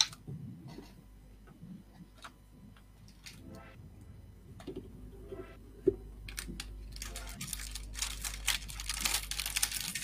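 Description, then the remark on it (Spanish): A packet of album stickers being opened: scattered crisp taps and crinkles, then a busier, hissy rustle of tearing wrapper that grows louder over the last few seconds. “Vamos a abrir esta caja, esta bolsita, perdón como un, como un fajo sobres de álbum.”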